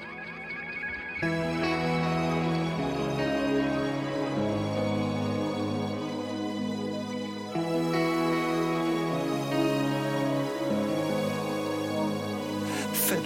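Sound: pop song playing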